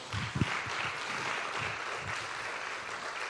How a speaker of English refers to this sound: Can we give them one more great round of applause?